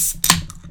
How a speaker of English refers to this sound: Uh, hold up, one sec. Cracking a beer.